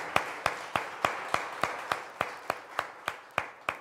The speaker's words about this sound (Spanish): Vamos a darles otro aplauso a todas y cada una de las mamás.